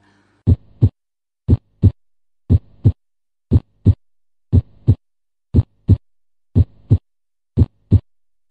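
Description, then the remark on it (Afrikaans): A steady heartbeat, each beat a paired lub-dub thump caused by the heart valves closing, the second sound by the closing of the aortic and pulmonary valves, repeating about once per second, eight beats in all, with no voices. “Wat jy in werklikheid hoor is die toegang van die kleppe, die sluiting van die kleppe self wat dan die hmm. geluid veroorsaak.”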